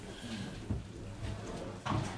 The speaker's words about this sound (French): On peut fermer les portes juste. Merci.